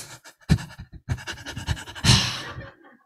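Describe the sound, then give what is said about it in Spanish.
A person imitates the heavy panting of people praying, a quick series of rhythmic, breathy gasps that builds to a louder, drawn-out exhale before trailing off. “Y empiezan a jadear y a llorar.”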